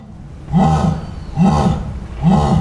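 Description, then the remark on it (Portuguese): A jaguar roars in three deep, rasping grunts spaced about a second apart, a rhythmic sawing call that is loud, with no voices. “Esturra! Que eu te escuto!”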